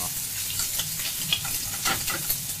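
Food sizzles steadily in a pan while gricia-style spaghetti is being cooked, a dense crackling hiss with scattered sharper pops and spits throughout, and no voices over it.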